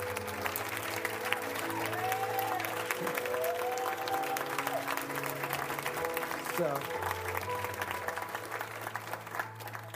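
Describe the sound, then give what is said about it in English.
A church audience applauds steadily for the full stretch to recognize new members, a dense, sustained wash of clapping with sustained keyboard chords underneath and a voice speaking briefly over the noise. “Come on, give Lord a hand clap.”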